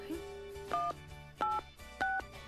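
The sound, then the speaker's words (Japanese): Three short electronic keypad tones from dialing a mobile phone number directly sound in an even sequence, each a brief two-pitched beep separated by pauses, clear over a faint steady background hum. “はいそれでは電話をしてみましょう電話番号を知っていますので姉子の携帯に直接かけますよ”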